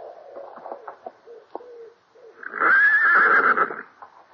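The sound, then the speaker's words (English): A horse lets out a loud, quavering whinny lasting over a second, preceded by quieter snorts and shuffling noises, as the stable lad takes the horses after an early morning ride. “Hunt, he's the stable lad, took our horses”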